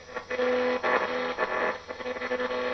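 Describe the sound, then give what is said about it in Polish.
A radio dial sweeps across stations, giving continuous hissing static with shifting tones and brief snatches of signal that rise and fade in steady, fairly loud bursts. “Przełączam sobie te fale.”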